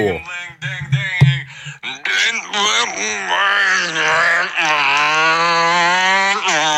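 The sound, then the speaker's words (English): A loud, sustained alarm-like wail with a wavering, siren-style pitch, apparently voiced by a person imitating an alarm, preceded by a couple of seconds of short knocks and clatter. “You know exactly what time it is because that is the alarm for what time it is.”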